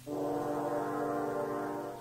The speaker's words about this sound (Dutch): De boze wolf hoor je al van verre in deze drie hoorns.